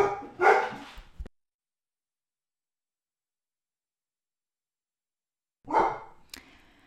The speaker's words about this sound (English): My dogs are getting excited. They, they, they love this conversation.